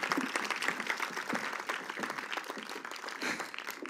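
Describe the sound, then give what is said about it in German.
Sustained applause from an audience for a woman who has just performed, a dense wash of many hands clapping steadily for several seconds at moderate loudness, with no voices standing out. “Gebt ihr mal kurz einen Applaus.”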